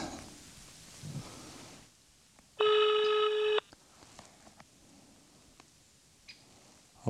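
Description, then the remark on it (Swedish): A single loud, steady telephone ringback tone lasts about a second, heard while a caller out hiking, just arrived at Siggeforasjön, waits for a friend to answer, with quiet rustling and faint handling noises before and after. “jag får ringa Emil faktiskt och höra hur”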